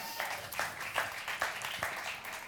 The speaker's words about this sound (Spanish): ¿Cuántos tienen así aquí entre 18 y 28 años? Levántenme la mano. Fuerte el aplauso para los de 18 y 28.